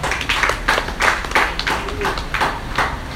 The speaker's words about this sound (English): Oh, I thought you clap your hands for that.